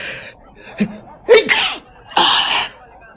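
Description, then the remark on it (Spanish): Two sneezes in a row from a person who has caught a cold, each set up by a quick sharp inhale. They are fairly loud with a brief pause between them, and nobody talks over them. “vaya, ya he cogido otro catarro. Y los estornudos me pueden delatar.”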